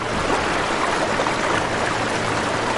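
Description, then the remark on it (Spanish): Water rushes in a steady, loud, dense roar, like a sudden flood pouring through, filling the whole moment without pause and with no voices. “La burbuja se inundó y el agua lo arrastró fuera.”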